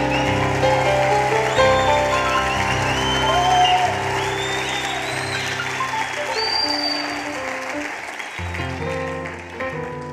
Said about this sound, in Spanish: Alguien diga aleluya. Oh, un aplauso fuerte Jesús.